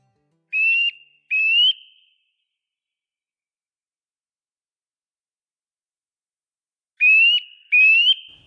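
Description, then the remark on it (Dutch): A Eurasian nuthatch in a beech forest with much dead wood on the Veluwe in Gelderland gives two pairs of clear, loud whistled calls, each pair a quick double note, separated by a long silence, with no talking and no other sounds. “zaten wel boomklevers te roepen en die hoorden we”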